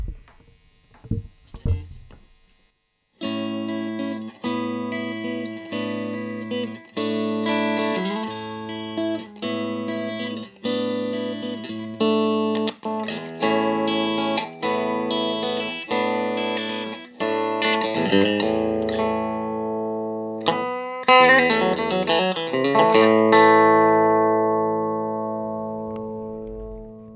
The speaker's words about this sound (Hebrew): סבבה, בוא נשמע את הטלקסטר, זו טלקסטר קלאסית, אה, ואנחנו נשווה אותה גם לגיבסון, זה המודל הקלאסי אה, וגיבסון קלאסי, המגבר שלנו זה אותו מגבר, לא הוספנו אף אפקט, אז אתם שומעים נטו את הגיטרות, בואו נשמע.